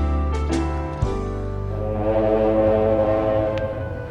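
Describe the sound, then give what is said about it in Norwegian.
A deep, sustained cruise ship horn blast in the Caribbean drones loudly throughout, steady and resonant with rich low harmonics, with a faint clatter near the start. “Skip ohoi! Da er det båt!”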